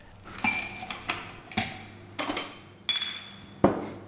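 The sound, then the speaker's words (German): Glasses clink repeatedly at the counter of the Lugosi Bar in Berlin-Kreuzberg, about seven bright, ringing knocks at irregular intervals, each with a short shimmering decay, over a low steady background hum and no talking. “Tja, Sie haben es gehört. Wir sitzen am Tresen”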